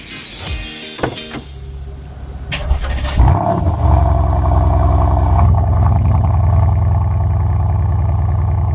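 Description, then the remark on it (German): A Mercedes-AMG C63 S T-Modell (estate) V8 engine cranks briefly, fires up with a loud blip, then settles into a deep, steady, burbling idle that stays strong to the end. “Und zwar ein ganz besonderer V8, ein Mercedes AMG C63 S T-Modell ja.”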